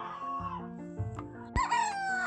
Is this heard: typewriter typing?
no